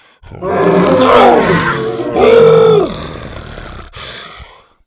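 A loud roar from Buck, a dinosaur, as warriors with a net close in on him: a long rumbling bellow, then a second rising-and-falling roar, and finally a shorter, quieter growl trailing off. No speech.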